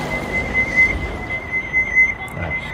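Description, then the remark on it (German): A high-pitched electronic beeping rings steadily throughout, with two brief, brighter pulses standing out over a low background rumble; nobody speaks. “Dieses Piepsen treibt mich noch zum Wahnsinn.”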